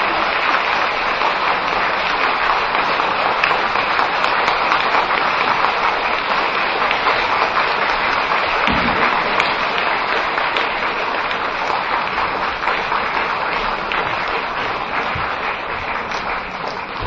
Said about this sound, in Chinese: 请大家用最热烈的掌声，恭请我们尊贵的卢台长为我们慈悲开示。